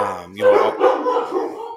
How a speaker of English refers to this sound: you'll have to excuse my dogs.